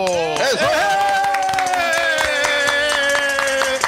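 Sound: loud applause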